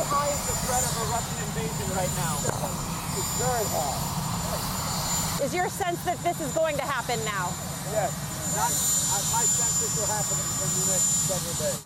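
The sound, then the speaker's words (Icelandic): A helicopter engine runs in a loud, steady roar with a high whine at the White House as Joe Biden, after answering reporters' questions, boards the helicopter, while people shout and talk over the noise throughout. “Joe Biden fórsitt í bandaríkjana svaraði spurningum fréttamanna um málið og leiðsinn upp í þyrlu við kvítahúsin úr setnipartin.”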